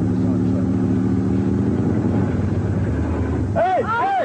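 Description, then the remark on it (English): A truck engine rumbles steadily, a continuous low droning hum as the truck rolls along while barrels are being loaded onto it; near the end a voice calls out over it. “I can't put it on the truck with you moving it.”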